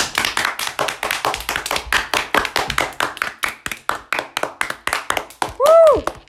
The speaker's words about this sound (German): Applaus, lang.